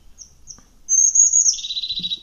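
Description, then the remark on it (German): A crested tit gives a few thin high notes, then a rapid, rolling purring trill lasting about a second, clear with no talking. “Zizi, dieses Gürr, dieses, dieses, äh, dieses Meckernde.”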